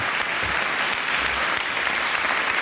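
A crowd claps steadily and loudly for a few seconds, a dense, even wash of applause with no voices standing out.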